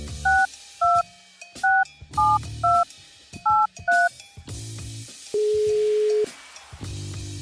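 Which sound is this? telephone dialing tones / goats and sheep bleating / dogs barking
telephone dialing tones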